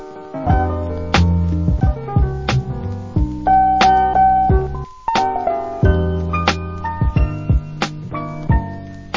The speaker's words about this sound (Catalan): Ara sona com música tan low-fi.